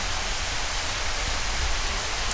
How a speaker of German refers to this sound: ist der Regen.